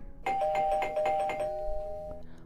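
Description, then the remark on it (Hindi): A doorbell at the door of a home rings with a quick burst of about five rapid chime strikes, then its tone lingers and fades out over the next second. It is fairly loud, and no one speaks. “और अब नौरी इंतज़ार कर रहा था अपने मम्मी पापा के आने की और तभी दरवाजे की घंटी बजती है”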